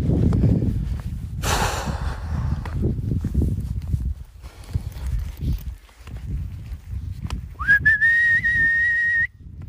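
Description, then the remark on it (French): A person whistles to call the dog Charlie: a single sharp, sustained whistle rises quickly and holds steady for nearly two seconds near the end. It follows a stretch of shuffling steps and rustling outdoors with no voices. “Charlie Je sais pas siffler.”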